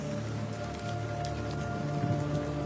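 Steady rain patters on a hard surface, a continuous dense hiss of drops at moderate loudness with no pauses, heard alone without any voices.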